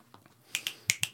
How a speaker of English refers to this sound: Got to get you some snaps.